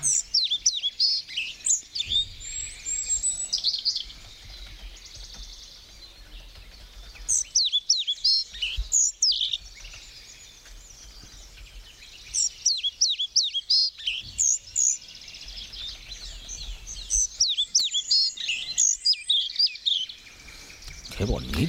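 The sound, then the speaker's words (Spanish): A small bird sings high, brief whistled phrases, repeating them in several bursts separated by short pauses, clear over a faint low background rumble. “Este especie de silbido que emite este pajarillo que es un poquillo desconocido.”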